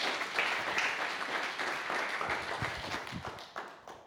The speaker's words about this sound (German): Noch mal einen Applaus für dich.